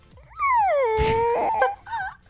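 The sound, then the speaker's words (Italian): A voice imitates an old creaking wooden door swinging shut: a drawn-out squeal that slides down in pitch and holds, with a breathy burst near the end and a brief wavering tail. “Che era quello della porta quando si chiude, per, no?”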